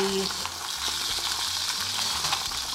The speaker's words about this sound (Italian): se stai parlando non ti sentiamo, c'è uno spadellio di sottofondo molto fastidioso. Cos'è? Pentole, un rumore.